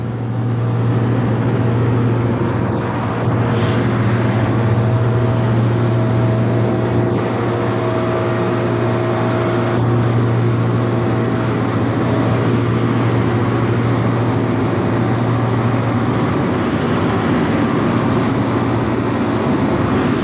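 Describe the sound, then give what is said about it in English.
A suction truck's heavy engine drones steadily with a deep, constant hum, layered with a broad rushing roar as a big suction tube down a storm grate cleans out a storm drain on a Monday morning, running without a break and no voices. “got a big suction tube stuck down a storm grate.”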